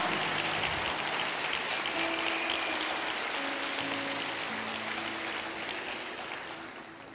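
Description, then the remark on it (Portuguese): A crowd applauds at a speaker's call for a strong round of applause, a dense, steady roar of clapping that holds for several seconds before easing off slightly at the end, with faint sustained musical tones underneath. “Isso é ter misericórdia um forte aplauso se você estiver vivo nesse lugar.”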